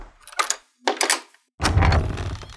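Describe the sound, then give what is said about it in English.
A door handle rattles twice in short, clattering bursts, then after a brief pause the door creaks and swings open with a fuller, sustained rumble. Fairly loud, with no one speaking. “should we start trying doors now that there are actually doors to try?”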